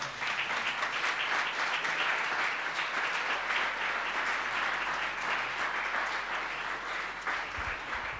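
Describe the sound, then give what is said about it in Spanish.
A crowd gives a welcoming applause to a visiting guest, clapping steadily for about eight seconds, a dense, even wash of many hands clapping at a constant loudness with no voices over it. “Así que le damos un aplauso de bienvenida.”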